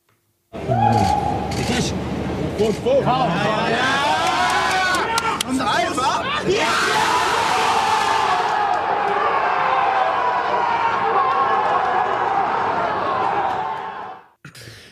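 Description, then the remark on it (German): A crowd at the pitch side of Real Madrid's amateur stadium, following the last seconds of Donetsk vs Inter Milan on a tablet, murmurs with scattered shouts, then erupts into a loud, sustained roaring cheer as the 0-0 result puts Gladbach into the Champions League round of 16, cutting off abruptly. “Ein riesiger Jubelschrei natürlich.”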